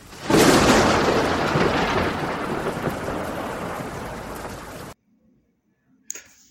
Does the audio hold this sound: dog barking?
no